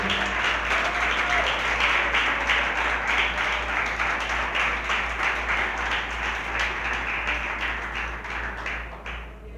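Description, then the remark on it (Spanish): An audience applauds the Lord steadily, many hands clapping in a dense, continuous wash that stays loud before easing slightly toward the end, with a low steady hum underneath. “Le doy aplausos si es tan amable al Señor.”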